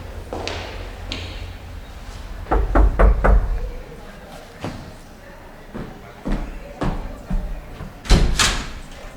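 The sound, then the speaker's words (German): A quick run of four sharp, fairly loud knocks on a wooden door numbered 3 off a narrow hallway, followed by scattered softer thuds and shuffling movement. “Der erste Detektiv durchquerte den engen Gang, hielt vor der Tür mit der Nummer 3 und klopfte.”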